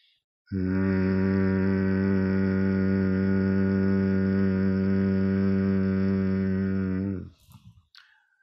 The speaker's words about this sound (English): Breathe in through the nose. And on the exhale, I want you to make a robust humming sound. Like I'm going to do it right now.